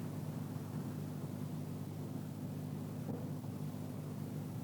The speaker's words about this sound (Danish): Efter 5 sekunders pause igen bil og gadestøj, som nogle få sekunder står ring, og efter den igen forsvinder, og min stemme står helt ren.